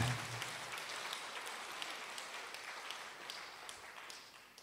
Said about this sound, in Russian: Дай огромные, огромные, огромные аплодисменты.